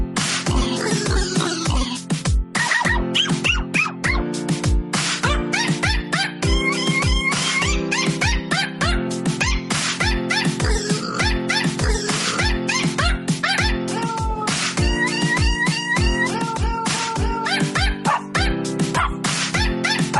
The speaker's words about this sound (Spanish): Buena, muy bonito estos perritos y gaticos y animalitos cantando Navidad.